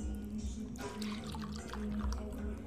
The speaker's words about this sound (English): Excuse me, you know, as I, am as I poured a henny. Mm, good Hennessy, man.